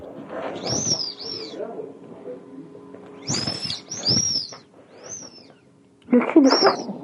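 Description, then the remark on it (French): An inflatable dog-head float squeaks in short, high-pitched bursts when its neck is pressed, several wheezy squeals arriving in pairs with pauses between, fairly loud, the last one the loudest. “Une bouée gonflable avec une tête de chien. Ça faisait ce son-là quand on appuyait sur le cou.”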